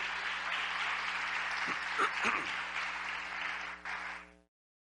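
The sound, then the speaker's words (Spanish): An audience breaks into steady, dense applause given to God, the "blessed King", running for about four seconds with a brief swell in the middle, where a few voices call out, before it fades and stops. “Démosle un aplauso al Rey bendito.”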